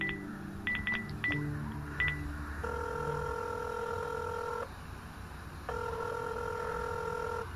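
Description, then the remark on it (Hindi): A phone number is punched in on a telephone as a quick run of short keypad beeps, followed by two long, steady ringing tones on the line as the call is placed, with no one speaking. “मुझसे रहा नहीं गया और मैंने भारद्वाज को फोन मिला दिया”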